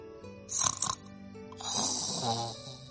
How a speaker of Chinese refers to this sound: 咦，是谁在打呼噜？哦，原来有个熊宝宝数着数着就睡着了。